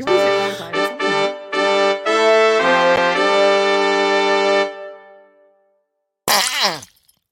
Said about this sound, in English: It's so disgusting. Okay, wait. The I, fart I noise made it so much more complicated for me to do it because I had to pay. You have to pay for the fart noise